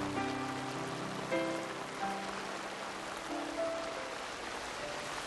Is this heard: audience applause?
no